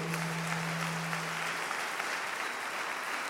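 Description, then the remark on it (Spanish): An audience at a weekend convention claps in sustained, dense applause of welcome, a steady wash of overlapping hand claps that holds at an even level throughout, with a low hum fading out early on. “desen un fuerte aplauso de bienvenida a esta convención.”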